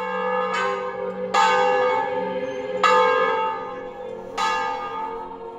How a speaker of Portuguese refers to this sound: o dobre é diferente. São sons mais tristes e fúnebres. Em movimento, o sino provoca a percussão do badalo uma ou duas vezes em cada rotação. Uma vez, dobre simples. Duas vezes, dobre duplo.